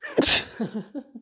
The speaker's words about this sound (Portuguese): Eu vou espirrar.